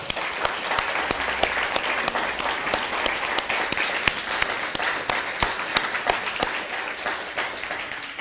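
An audience applauds steadily for about eight seconds, a dense, even wash of many hands clapping at once with sharp individual claps popping out, and no one speaking over it.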